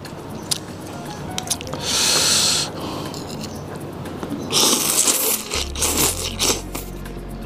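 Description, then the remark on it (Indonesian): Someone slurps mie kocok Bandung noodle soup in a few loud, hissing, wet pulls, a long one first and then several shorter bursts, with no talking. “Tarikan pertama saya makan, wow, seruput-seruput.”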